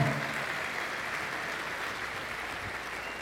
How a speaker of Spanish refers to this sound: Dale el mejor aplauso que le hayas dado.